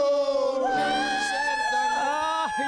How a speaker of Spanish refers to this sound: Qué gritos, qué gritos, qué maravilla esos gritos en martes, ¿eh? en martes 5 de diciembre. Es una cosa que me hace, me levanta el ánimo.